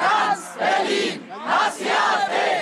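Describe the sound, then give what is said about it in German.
A crowd of several hundred mostly young protesters demonstrating in front of the German Federal Chancellery for a ban of the AfD chants in loud, rhythmic bursts, several voices shouting together in a repeating cadence with brief dips between phrases. “Sie sind empört und besorgt und demonstrieren vor dem Bundeskanzleramt.”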